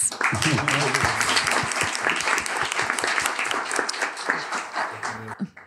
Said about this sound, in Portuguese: Gente, vocês estão de parabéns Todas as perguntas se esgotaram. Palmas para nós.